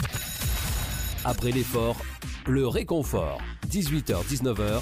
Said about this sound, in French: Eh oui, j'appuie toujours sur le même bouton du même jingle. Faudrait peut-être que je change, j'en ai plein sur l'écran, mais j'appuie toujours sur le même. C'est un vieux réflexe.